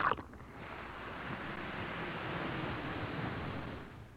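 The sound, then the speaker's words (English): An Alka-Seltzer tablet fizzes in water with a steady, dense hiss of tiny bubbles that starts after a brief opening sound and continues at an even level for about four seconds. “Listen to it fizz.”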